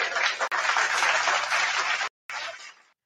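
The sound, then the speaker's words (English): A dense wash of crowd applause, steady and loud for about two seconds, briefly cut off, then a shorter final burst that quickly fades away. No one speaks. “Round of applause for Melissa Petties”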